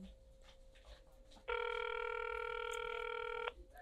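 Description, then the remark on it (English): A single two-second burst of a ringback tone on an outgoing phone call, loud, with a faint steady hum just before it and quiet background noise around it. “Answer the phone.”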